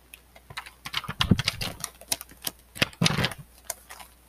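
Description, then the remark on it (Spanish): Rustling of notebook pages being opened to do homework, followed by a series of irregular light taps and scratches of a pen writing on paper, with no talking. “El tercer sonido es el sonido cuando voy a hacer mis tareas, cuando abro mis cuadernos.”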